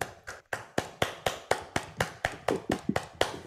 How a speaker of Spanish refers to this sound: un fuerte aplauso al Santo bendito sea.